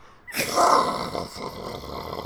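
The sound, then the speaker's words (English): A voice makes a loud, rough, growling rumble as a quiz buzzer sound; it starts abruptly and holds for about two seconds, a vocal imitation of an earthquake's deep roar, alone without speech. “um, it's either the sound of an earthquake or a volcano or the magnetic flux of the earth.”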